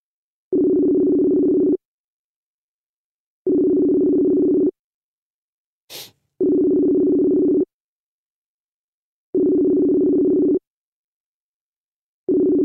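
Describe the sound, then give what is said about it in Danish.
A Messenger video call ringing tone repeats evenly: steady, mid-pitched tone bursts about a second long, four full rings and the start of a fifth, with one brief click between. No one speaks. “Ved du hvad, jeg synes, vi ringer lige til ham på Messenger.”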